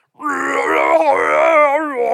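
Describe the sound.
A human voice imitates a big bad wolf's frightening roar: one loud, sustained, groaning growl about two seconds long, its pitch wavering and trembling throughout.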